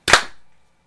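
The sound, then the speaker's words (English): Several people clap once together on a three-two-one countdown to sync their recording: a single sharp, loud burst of clapping at nearly the same instant, the hits slightly smeared together, followed by a brief fading ring and then silence. “And then we'll all clap on shoots.”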